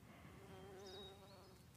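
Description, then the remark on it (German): A bee's steady, droning buzz hums continuously for a couple of seconds, fairly soft, with a few faint high chirps in the background and no voices. “Beobachtest vielleicht eine kleine Biene oder eine Hummel,”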